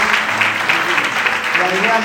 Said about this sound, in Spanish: Le damos un aplauso a Dios por la vida de vosotros.